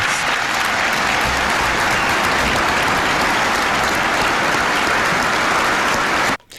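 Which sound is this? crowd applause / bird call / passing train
crowd applause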